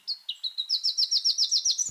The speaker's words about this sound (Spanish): El trino del arañero cabecinegro forma parte del Banco de Sonidos de Aves Colombianas recopilado por el Instituto von Humboldt y la Universidad de Cornell.